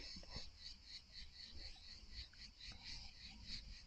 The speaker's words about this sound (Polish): Teraz chwila na cykady. cykady, tak.